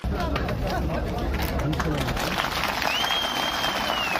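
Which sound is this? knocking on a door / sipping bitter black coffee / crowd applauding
crowd applauding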